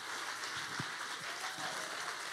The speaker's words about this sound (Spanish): dale un aplauso fuerte.